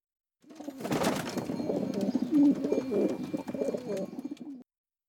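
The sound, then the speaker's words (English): A flock of pigeons cooing together in a steady, overlapping murmur, fairly loud, with a few faint flutters mixed in and no talking. “It transpires the birds actually aren't trained to travel outside Egypt.”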